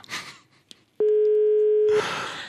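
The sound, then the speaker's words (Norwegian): A single loud, steady telephone ringback tone from a call to a payphone at Skøyen station sounds for about one second, a flat electronic hum, with soft breathy noises just before and after it. “Hvis du er på Skøyen stasjon, ta telefonen, da.”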